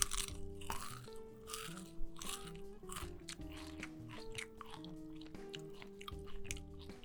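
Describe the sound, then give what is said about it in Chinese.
Loud, crisp crunching and chewing of KFC fried chicken skin, with irregular bites every second or so over the whole stretch, while steady musical tones play underneath and no one speaks. “我们刚才吃的是肯德基的鸡皮”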